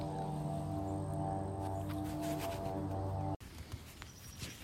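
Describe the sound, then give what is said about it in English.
A loud, steady airplane engine drone with layered tones roars directly overhead, then abruptly cuts to a softer, noisy rumble as it passes. No one speaks. “that plane that you just heard went directly overhead and was super loud.”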